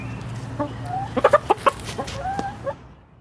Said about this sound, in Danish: Nå, men øh, inden jeg går på jagt i butikkerne, så har jeg faktisk nogle naboer, som øh, slet ikke behøver at bekymre sig om æggemangel, fordi de allerede holder høns.